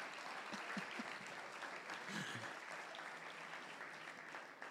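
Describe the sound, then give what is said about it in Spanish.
A church audience claps loudly and steadily for several seconds in applause to the Lord at the preacher's call, a dense wash of many hands, with a few faint voices calling out beneath it. “Démosle un aplauso al Señor, hermanos, pero fuerte, désela.”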